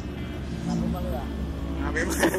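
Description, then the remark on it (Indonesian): A car engine idles with a steady low rumble throughout, while muffled voices murmur over it and a brighter hiss rises near the end. “mobil nyala lah”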